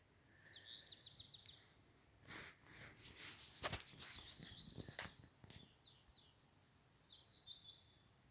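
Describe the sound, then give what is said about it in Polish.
A lark sings in quick, high, twittering trills, one burst at the start and another near the end, with a few soft rustling thumps in between, against a quiet nighttime background. “Nie wiem, to skowronek chyba. Tak śpiewa.”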